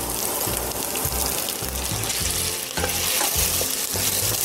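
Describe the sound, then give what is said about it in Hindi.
Steady sizzling from a hot pan as a splash of water hits ginger and garlic paste frying in oil with onions while cooking mutton, with a rhythmic scraping of stirring repeating underneath throughout; no one speaks. “अब थोड़ा सा अदरक और लहसुन का पेस्ट इसका थोड़ा पानी डाल देते हैं”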